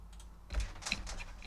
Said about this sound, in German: Habe ich jetzt, habe ich die Tastatur kaputt gemacht?